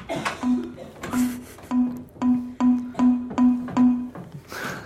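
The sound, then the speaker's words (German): A short Windows error ding, played when a Windows Form has no action set for Escape or Enter, repeats about eight times in a quick, steady rhythm, each chime brief and clear, with no voices. “so, dass wenn in einem Windows Form keine Aktion für Escape oder Enter hinterlegt war, dann kam immer dieses Ding-Dong, Ding-Ding-Ding, Ding-Ding-Ding, Ding.”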